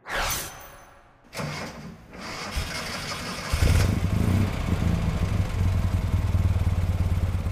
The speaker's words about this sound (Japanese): まずは日本製小型スポーツカーの伝説的な1台通称ヨタチと呼ばれる全長 3580mm トヨタスポーツ800